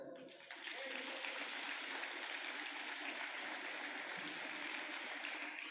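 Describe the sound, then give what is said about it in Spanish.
A crowd claps steadily and loudly for several seconds, a dense, continuous wash of applause with no voices standing out. “Yo ya le hubiera dado un aplauso a él.”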